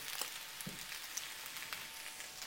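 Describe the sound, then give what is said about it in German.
A steady, crackling sizzle of food frying in a pan, with scattered pops and a few brief clatters as the pan is swirled, fairly quiet with no voices. “Ich schwenk mal wieder, ja?”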